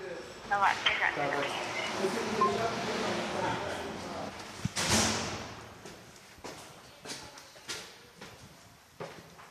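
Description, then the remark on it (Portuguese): A door is opened for an arriving visitor and then shut with a solid thud, followed by a scatter of soft clicks and knocks, while faint voices murmur in the background. “Já, vou-te abrir aqui a porta.”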